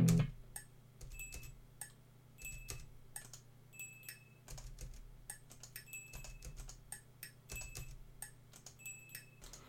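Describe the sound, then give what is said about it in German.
A ceramic mug tapped against a pen as a percussion element placed under a song's chorus, in a quick percussive pattern producing crisp clicks, some with a short bright ring, repeating steadily over a low steady hum. “Ich habe mit der Tasse auf den Stift gehauen.”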